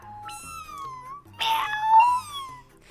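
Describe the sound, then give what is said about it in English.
A person imitates a cat, giving two drawn-out, wavering meows in a row, fairly loud, with no talking around them. “I, I do sheep noises sometimes. I could do like cat.”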